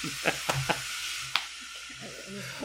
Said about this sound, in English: Hello, that is my washing machine. Should we pause? yeah, we should probably pause